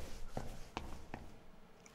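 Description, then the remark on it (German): Three quick, evenly spaced footsteps thud as someone hurries up a flight of stairs to ring at a door, then the sound fades into quiet room tone. “Hastig eile ich die Treppen hinauf und läute.”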